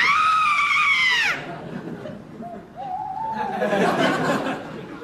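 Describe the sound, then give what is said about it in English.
A loud, shrill scream rings out at night from the bushes for about a second, rising and then falling off, followed by faint low sounds and a later burst of rough, breathy vocal noise. “uh, yes, by heavens, a terrible scream, and by the sound of it, coming from over in the bushes.”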